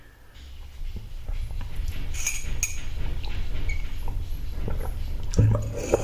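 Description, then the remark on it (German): A male cat playing with a cupboard again: scattered light clinks, taps and rattling knocks over a steady low rumble, with a slightly louder clatter near the end. “Mein Kater spielt schon wieder mit dem Schrank.”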